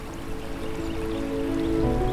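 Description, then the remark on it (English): Steady, gentle flowing water of a calm river runs continuously, with a soft rushing texture that swells slightly toward the end, alongside a faint sustained tonal hum; the river crosses the town of Valtopina. “So we glide down the slopes of the Subasio mountain and reach the town of Valtopina, crossed by the river that becomes calm and contemplative with its amazing views over its banks.”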